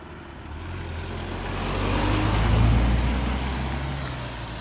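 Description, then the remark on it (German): A car passes by, its engine hum and tire noise swelling to a peak midway and then easing off slightly, with a low rumble throughout and no talking. “Alter, da kommt ein Auto.”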